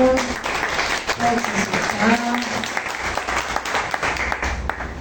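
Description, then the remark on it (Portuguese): An audience applauds the Lord steadily for several seconds, a dense, sustained wash of many hands clapping at a fairly loud level, with a few faint voices and brief tonal sounds mixed underneath. “Aplauda o Senhor.”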